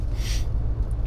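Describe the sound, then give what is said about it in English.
A single quick, airy slurp as someone sips dark roast blend coffee, French pressed, bought at a local cafe: a soft hissing intake lasting a fraction of a second, followed by a low, steady background hum with no talking. “going to take a sip of coffee here.”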